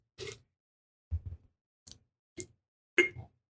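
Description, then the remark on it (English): Paper slips are shaken to draw next week's topic, rustling and crinkling in five short, crisp bursts separated by brief silences, with no voices present. “Get that good paper sound in there.”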